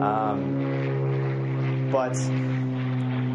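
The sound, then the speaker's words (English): A steady, droning airplane engine hums overhead throughout, its low tones holding constant beneath a person speaking a few brief words. “Sorry about the plane above me.”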